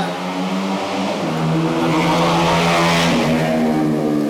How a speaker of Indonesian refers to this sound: kencang motornya mantap juga Formula One